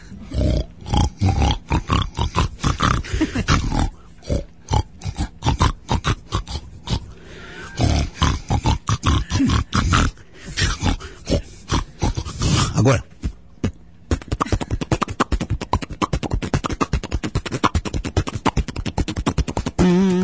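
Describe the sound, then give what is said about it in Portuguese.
Loud snoring sounds run continuously through a music recording: rough, rasping snorts and grunts repeat in quick rhythmic bursts with only brief pauses between them. “Você né? deve roncar até, você deve roncar demais, né?”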